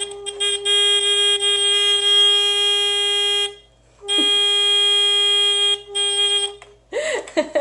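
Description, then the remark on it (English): A loud, steady electric buzzer on a wire tester, its black wire hooked to the track, drones for several seconds, cuts out briefly, then sounds again in a second long burst before a voice cuts in at the end. “And you should have one wire left the black of the buzzer gets hooked to the track.”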